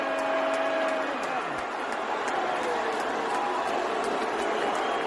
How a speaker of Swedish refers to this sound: folk buade då ganska, ganska mycket åt, åt eh, Elon Musk. Han var ge en applåd för världens rikaste man och sen så kom han upp då och så, så buade de ut honom.